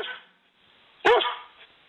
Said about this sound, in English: 说到中国的小狗 puppy，叫起来是响亮的汪汪汪，但是国外偏偏叫成 woof woof woof，气势上就输给中国的阿旺了。